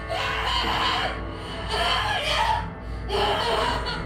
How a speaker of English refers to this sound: You want to hear? I can put shadow screams to the speakers if you want.